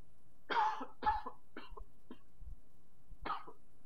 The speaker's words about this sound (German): Und äh, ja, Sekunde, genau. ich muss genau. mal gerade husten, kleinen Moment.